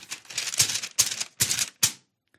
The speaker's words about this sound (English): Now, I, I have the paper just for sound effects because clearly I did not print it out. But it, I, if I just tap on my uh, uh, iPad, it doesn't work.